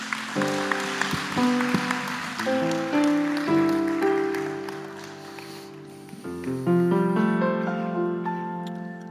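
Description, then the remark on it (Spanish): A church audience applauds for Christ with steady, dense clapping over sustained keyboard chords that shift pitch several times, the clapping continuing throughout the nine seconds without any talking. “un aplauso a Cristo.”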